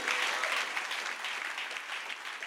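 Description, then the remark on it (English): A church audience bursts into steady, sustained applause, a big clap of glory for the Lord, a dense wash of many hands clapping at once that holds at a fairly even, loud level throughout, with no voices standing out. “Give the Lord a big clap of glory.”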